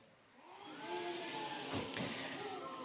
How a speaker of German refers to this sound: Ein kalter Wind zieht auf.